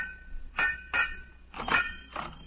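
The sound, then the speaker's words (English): Five hard metallic bangs on steam heating pipes, each leaving a brief ringing tone, struck in an uneven rhythm with a quick double hit in the middle, fairly loud with no voices. “For days I'm a bang, a bang on a steamer pipes, but there's no answer.”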